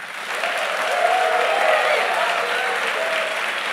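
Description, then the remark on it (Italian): A live audience in Milan applauds steadily, dense clapping at a loud, even level for a few seconds with a faint murmur of cheering underneath. “Applausi.”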